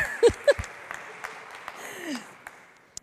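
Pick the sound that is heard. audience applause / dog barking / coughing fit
audience applause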